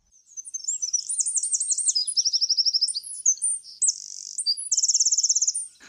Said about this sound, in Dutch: En dit is dezelfde vogel, maar dan iets hoger gemaakt met software.